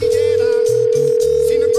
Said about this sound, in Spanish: y efectivamente, me fui hasta la esquina, cuando eso pues con monedita y toda la cosa, a echar la moneda y empezó a sonar el teléfono en la casa